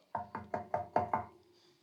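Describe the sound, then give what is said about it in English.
Six firm knocks on a stranger's door during door-to-door community visits, in quick, even succession and fairly loud, with each rap ringing briefly before a quiet tail. No voices are heard. “It is when you walk up cold knock on somebody's door you don't know.”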